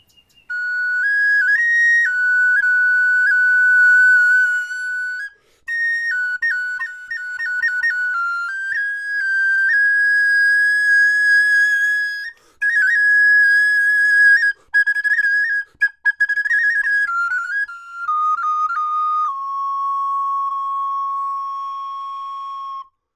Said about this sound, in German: das Innere dieses Klangs ist einfach bis heute etwas vom faszinierendsten, schönsten und aufregendsten für mich. Ich bin tief gerührt, wenn ich eine Blockflöte höre. Das hat einfach mit dieser Direktheit zu tun, dass es so ein Sehnenspiegel ist.